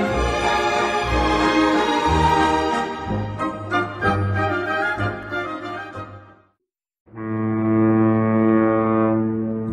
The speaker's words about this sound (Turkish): burası Boğaz'ın sesi.